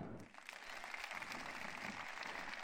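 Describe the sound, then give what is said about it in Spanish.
Steady, dense applause from a crowd for a group from Noia fills the whole stretch, a continuous wash of many hands clapping at once with no pauses or distinct individual claps standing out. “E agora, outro forte aplauso para os de Noia!”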